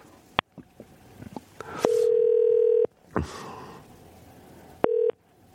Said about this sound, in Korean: 0778님 한번 전화 걸어볼까요?